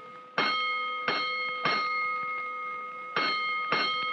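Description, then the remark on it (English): A fire alarm bell strikes out box number 32, for Clark and Montague in the warehouse district, in clear metallic clangs: three evenly spaced strokes, a pause, then two more, each ringing on with a long sustained tone. No voices. “Hook and ladder, three ones, makes the run to Clark and Montague on the third alarm.”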